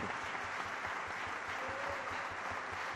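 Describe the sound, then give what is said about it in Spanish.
Steady applause from an audience, a dense wash of clapping that holds at an even, fairly loud level for the whole stretch with no voices. “Un aplauso.”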